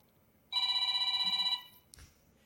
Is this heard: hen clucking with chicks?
no